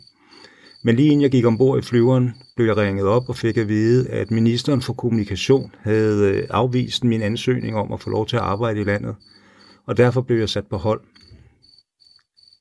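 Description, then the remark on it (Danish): Cicadas on Lesbos chirp steadily in the background, a thin, high, pulsing drone that runs throughout while a man talks over it in the foreground. “Disse kæder, man kan høre øh, i baggrunden nu, er derfor ikke fra Afrika, men tværtimod fra Lesbos”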